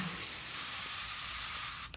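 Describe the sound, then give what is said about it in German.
A close, steady hiss of an aerosol spray released in one continuous burst of about two seconds, then cut off with a short click; no voices. “Ja, spritzt ihr mal, ihr spritzgeilen Schweine.”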